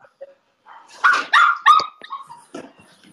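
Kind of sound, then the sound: animal, dog barking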